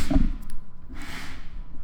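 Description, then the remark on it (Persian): An upturned plastic bowl, used as a stand to raise a microphone to mouth height, bumps down and then scrapes across a tabletop, a short hollow knock followed by a brief rough dragging rasp. “این صدایی که شنیدین صدای کشیده شدن این کاسه هست روی میز میشنویم یک کاسه پلاستیکیه که من برعکس میذارم که این میکروفونه به ارتفاع دهن من برسه چون اگه بذارم کوتاه میشه مستقیم میکروفون نمیتونم بذارم رو میز”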